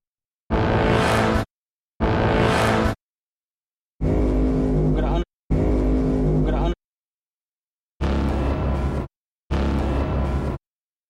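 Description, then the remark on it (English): Six short, loud, growling cinematic braam tails heard in pairs, three different endings each played twice, with deep rumbling low end and gritty brassy buzz, separated by brief silences. “Here are the ends of those other three Brahms.”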